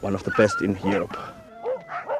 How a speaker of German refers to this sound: Diese Vierbeiner sind dagegen zutraulich und sehr lebendig. Uh, das hier sind sibirische Huskies, in Finnland geboren. Sie stammen zum größten Teil aus eigener Züchtung, eine der besten in ganz Europa.